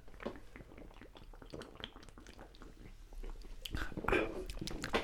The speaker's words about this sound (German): Apropos Bierverkostung. Ja, ähm, wir probieren jetzt mal hier. Prost. Ah, Prost. Klingt schon auf gut.